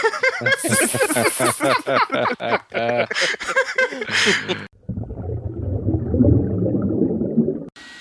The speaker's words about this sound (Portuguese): eu acho que é meu secador